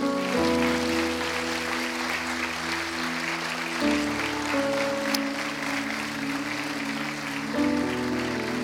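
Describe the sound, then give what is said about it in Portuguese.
An audience at a morning church service applauds the Lord steadily throughout, a dense continuous clatter of many hands clapping over sustained organ or keyboard chords that shift a few times underneath. “Será que você pode aplaudir ao Senhor?”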